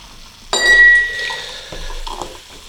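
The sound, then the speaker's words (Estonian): Glasses clink together once in a toast, a bright ring that lingers and fades over a couple of seconds against a quiet background. “teeme, teeme tilksi.”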